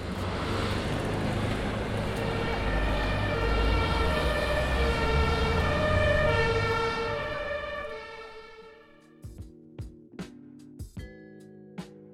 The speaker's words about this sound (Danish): Der bliver snakket forskellige sprog, og larm fra trafikken bliver højere.